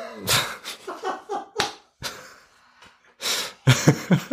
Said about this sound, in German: Ich bin die ganze Zeit räuspern.